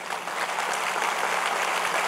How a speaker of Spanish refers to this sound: ¿Cuántos le quieren dar un aplauso al Señor por eso?